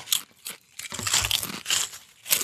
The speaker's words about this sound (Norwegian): Skåla med chips skal fortæres. Det er førstemann som tømmer skåla, og jeg sier klar, ferdig, gå!